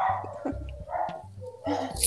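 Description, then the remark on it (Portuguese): Dogs bark in a short burst of several yaps, one after another at an uneven pace, fairly loud but slightly muffled, with no talking over them. “Eita, solta os cachorros aí.”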